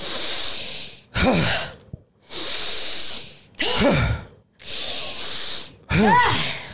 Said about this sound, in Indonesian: Itu nafasnya nggak di dada ya, tapi di perut. Jadi perutnya diisi dengan oksigen.